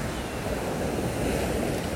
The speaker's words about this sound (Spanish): Estoy aquí sentado, viendo las olas, como van y vienen, viendo esta luz solar de la mañana, dándome en mi rostro, cogiendo esa energía de ese gran océano.